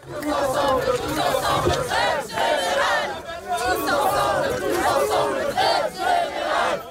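A large crowd at a mass strike in France on Tuesday 7 March shouts and chants together, a dense roar of many overlapping voices rising and falling in loud surges, sustained throughout like a massed protest rally.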